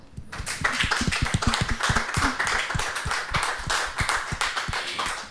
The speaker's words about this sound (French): J'aime bien applaudir les élèves quand ils viennent présenter leur projet, donc on peut faire ça déjà.